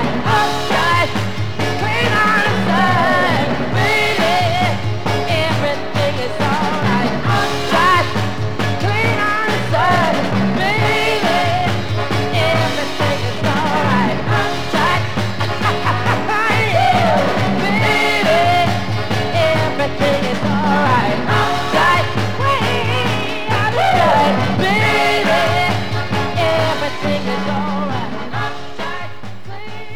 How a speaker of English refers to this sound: Stomping and Storming Northern Soul from the Motown studio there.